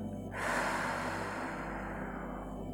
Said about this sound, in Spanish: Y vuelvo a respirar y a sentir la respiración.